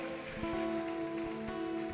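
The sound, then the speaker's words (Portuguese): An audience claps for the Lord steadily and densely for two seconds, a continuous patter of many hands, with a sustained, steady tone humming underneath and no voices. “Aplauda o Senhor, se é para Ele, aplauda mesmo com força.”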